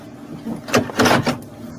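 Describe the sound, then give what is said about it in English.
A hovering craft's propulsion whooshes in a few quick surging bursts, the loudest swell in the middle, over a steady low mechanical hum. No one speaks. “he says the that whooshing sound you're hearing is the propulsion of it.”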